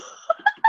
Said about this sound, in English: That was a five-year-old child sneezing.